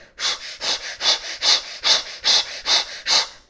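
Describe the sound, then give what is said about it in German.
A person breathes forcefully and rapidly during a vigorous active meditation, about eight sharp, rhythmic breaths in quick succession, each a loud, airy rush with a steady pulsing pace and no talking. “Ich kann euch mal kurz vormachen, du hörst es dann nur, wie sich die Meditation anhört.”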